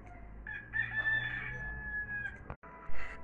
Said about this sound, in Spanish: Pero eso sí, sería después de la merienda y después de que cante el gallo.